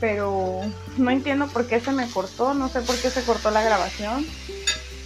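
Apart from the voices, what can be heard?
food sizzling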